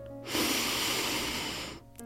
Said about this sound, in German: Als allererstes atmen wir tief durch die Nase ein